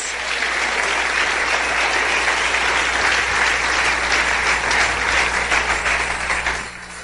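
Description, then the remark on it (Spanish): Loud, sustained applause from a large crowd, given to the 'blessed King' (Rey bendito), a dense wash of many hands clapping at once for about seven seconds before tapering off slightly at the end. “Denle un aplauso al Rey bendito.”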